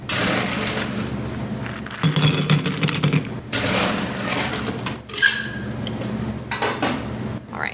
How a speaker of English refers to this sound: I am going to chill a coupe glass for this just to make it extra special.